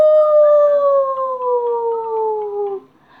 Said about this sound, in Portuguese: Como é a sua voz? O lobo uivou. Au! Au! Au! Dona Baratinha disse: É muito barulho. Você me assusta.